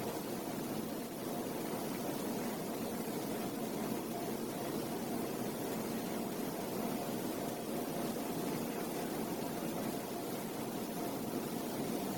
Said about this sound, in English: There's bound to be some. For me, the sound of the air conditioning stands out.